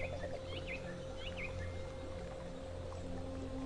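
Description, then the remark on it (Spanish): Scattered bird chirps and short whistled calls ring out in a garden over a steady, dense background hum, with a few quick bursts near the start before the calls thin out. “Puedes oír el canto de las aves, el zumbido de insectos, chapoteo y borboteo de las cascadas de agua.”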